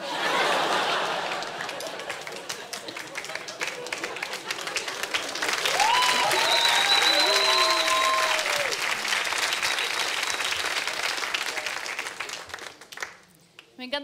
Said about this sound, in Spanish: que tratan de empezar el aplauso y es como, ándale, disculpen.